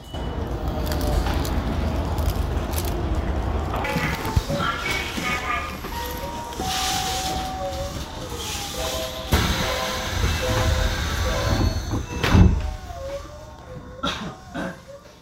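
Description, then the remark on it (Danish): A train rolls along with a steady low rumble, hiss and whining tones, faint voices in the background, and a sharp clunk near the end like sliding doors, on a train ride heading toward Namba station. “Jeg vil hoppe ind og finde mig et tog i hvert fald.”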